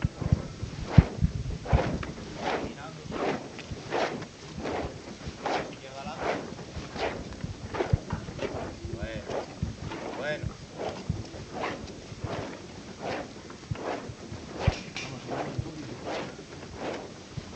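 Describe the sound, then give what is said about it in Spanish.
Costaleros of the Hermandad del Silencio shuffle their feet (rachear) in steady unison while carrying the procession float near their parish of Cristo Rey, a rhythmic scraping swish repeating roughly every second over a low murmur of background sound. “Con este rachear, con este ritmo, caminan los costaleros.”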